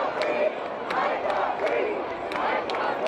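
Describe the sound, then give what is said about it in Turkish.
Thousands of protesters at demonstrations over George Floyd's death shout "I can't breathe" together in a dense, continuous roar of many voices, with brief sharper cries and bursts rising above the steady mass of chanting. “Binlerce kişi nefes alamıyorum diye bağırdı.”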